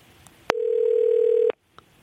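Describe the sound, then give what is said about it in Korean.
A steady, mid-pitched telephone dial tone hums for about one second as a phone call is placed live on air to a listener, starting and stopping with soft clicks, with a faint tick afterward and no voices. “자, 라이브로 전화 갑니다.”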